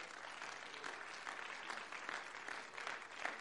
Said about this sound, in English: Would you clap your hands again to the Lord?